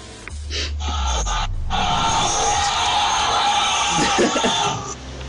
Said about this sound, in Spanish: ¿Un montón de gente gritando? Sí.